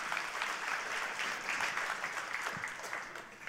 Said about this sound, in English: Give him a round of applause.